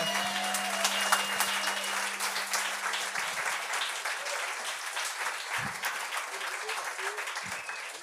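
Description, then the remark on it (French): A crowd claps steadily and densely for about eight seconds, with scattered cheers and shouts rising through the sustained, even roar of applause, welcoming a guest introduced as a very good friend. “de bruit pour un très bon ami”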